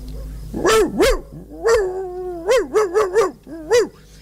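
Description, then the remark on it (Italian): A person imitates a barking dog with about eight loud woofs: two, a pause, one drawn-out bark, then a quick run of short yaps ending in a final bark. “Comunque, fatto il verso della tortora, a un certo punto il maresciallo Cipriani, da dentro un fosso, mi risponde col verso del cane. Fallo.”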